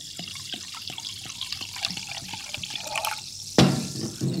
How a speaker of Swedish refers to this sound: att man vågar ju inte hälla så att det börjar spillas ut. Det lät härligt tycker jag.